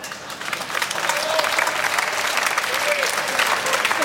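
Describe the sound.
Sustained applause from a studio audience, a dense wash of many hands clapping at steady volume for several seconds, with a few faint voices mixed in.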